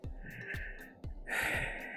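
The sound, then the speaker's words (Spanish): Heavy, rapid panting breaths, each one rushing in and out in a steady rhythm with faint thudding steps underneath, from someone out of breath while walking for exercise, about 1.46 miles into the walk. “que me falta aire, que estoy jadeando, que estoy respirando duro, es que estoy caminando.”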